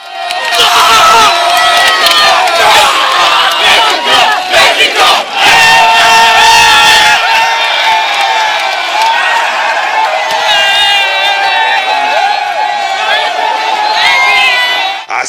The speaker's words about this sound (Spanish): Y aquí el recuerdo del festejo de la afición mexicana en Moscú de aquel 17 de junio de 2018 que gritó a todo pulmón el gol de Irving Lozano.